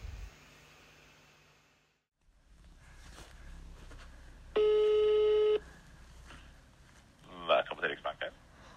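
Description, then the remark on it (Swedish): A telephone ringback tone sounds once while a call is placed to Sweden's central bank, the Riksbank: a single steady, loud electronic ring lasting about a second over quiet room noise, followed shortly by a brief voice. “Jag ringer till Riksbanken.”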